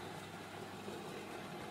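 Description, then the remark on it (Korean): A blender motor keeps running with a steady, droning whir, an even buzzing hum that holds at the same level throughout with no pauses and no voices. “여전히 믹서는 돈다.”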